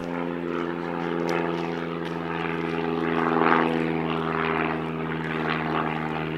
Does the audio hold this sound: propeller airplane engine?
yes